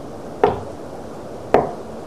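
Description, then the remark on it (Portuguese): A man knocks again on a wooden door: two solid knocks spaced about a second apart, each a short, fairly loud thud with a brief ring, over a quiet background with no talking. “Ele bate na porta novamente.”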